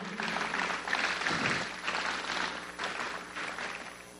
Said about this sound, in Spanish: Así que den un fuerte aplauso, anímenlo.